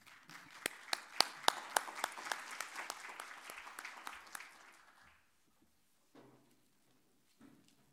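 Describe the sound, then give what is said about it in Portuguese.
An audience applauds steadily for about five seconds, a dense wash of clapping with a few sharp, loud individual claps standing out, then it dies away to near silence with a few faint sounds. “pedir uma salva de palmas para todos eles.”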